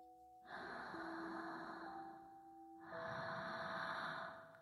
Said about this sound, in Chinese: 结果下一秒，我就听到了我左耳有人的呼吸声。